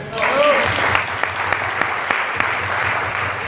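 An audience applauds steadily, a dense wash of clapping with a few sharper individual claps standing out, and a brief whistle-like tone near the start.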